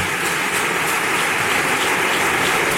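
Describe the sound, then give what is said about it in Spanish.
A large crowd applauding at Santelmo, thousands of claps blurring into a dense, continuous hiss that holds a steady level throughout, with no voices breaking through. “Pues estos son los aplausos que nos llegan desde Santelmo.”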